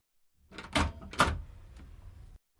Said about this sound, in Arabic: كانت هذه هي المرة الأولى التي يطرق فيها باب الجيران منذ أن انتقل للسكن هنا قبل شهر واحد.